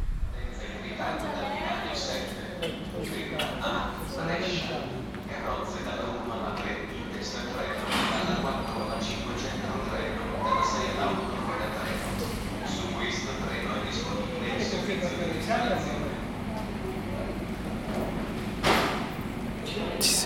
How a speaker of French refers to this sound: juin 2019 à la gare, de Vérone en attendant prendre le train pour Villars et ensuite pour Bled.